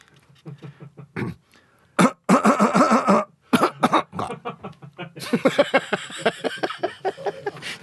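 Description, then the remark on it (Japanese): A long run of forceful coughs and throaty grunts from a man sick in bed with a cold, pushed out in a bouncy rhythm that traces the opening theme of the TV show Shōten, with brief pauses between phrases. “笑点』のオープニングで咳”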